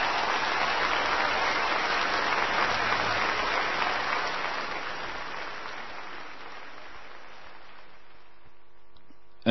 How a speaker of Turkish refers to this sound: önce müziği işittiniz, sonra da müziğe bir tepki olarak yükselen alkışları. Seyircinin alkışları orkestraya duyulan hayranlığı ve övgüyü dile getiriyor.